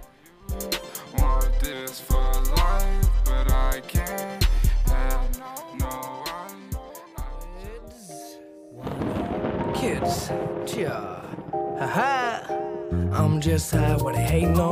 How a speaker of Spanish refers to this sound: Pues esto, um, esta canción, yo la empecé a escuchar mucho mi, senior year, en mi, mi último año de, high school ahí en Estados Unidos.